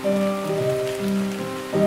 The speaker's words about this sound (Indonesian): Hujan setiap kali kamu datang dengan rintik airmu yang selalu saja mengingatkanku pada Tuhan.